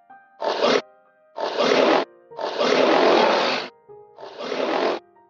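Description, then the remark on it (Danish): A recorded lion roar plays loudly from a boy's phone speaker in four rough bursts, the longest in the middle, with short pauses between them and no one talking. “Men Malte han når ikke at sige mere, før løven endelig får lov til at brøle højt fra Maltes telefon.”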